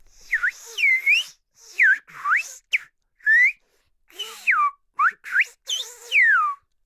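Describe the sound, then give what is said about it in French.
A single man whistles French speech, saying his name: a clear run of short gliding whistled syllables that swoop up and down in speech-like rhythm, with brief pauses between phrases and no spoken voice. “Je viens de dire en français, je m'appelle …, en parole sifflée”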